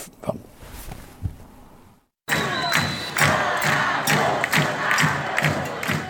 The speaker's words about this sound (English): Screaming at the top of their lungs, people on the street say the leader of their country must go. It was just one of the massive multi city protests held across Brazil this weekend against President Jair Bolsonaro.